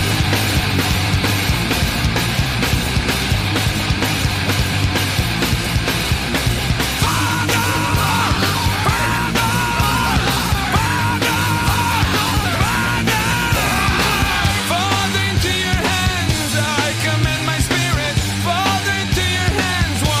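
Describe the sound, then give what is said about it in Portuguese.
A recorded song plays loud and continuous, a full band with a strong sung vocal line carrying the melody over steady bass and drums for about twenty seconds; this is the song's sung final stanza. “Vamos lá, vamos, vamos ver o que, que como é que é cantada essa parte.”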